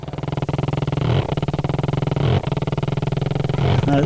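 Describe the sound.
A voice imitates a chainsaw engine running: a loud, steady rattling drone that keeps pulsing for about four seconds, with brief revving surges every second or so.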